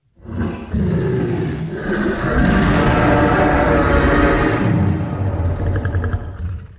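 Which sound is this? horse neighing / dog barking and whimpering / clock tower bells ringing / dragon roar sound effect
dragon roar sound effect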